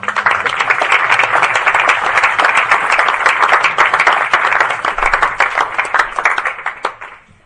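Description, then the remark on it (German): Sustained audience applause from a sizable crowd welcoming a speaker, dense and steady for several seconds before tapering off at the end, with no talking over it. “Applaus”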